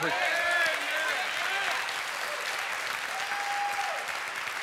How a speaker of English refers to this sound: Come on, somebody, give the Lord a hand clap.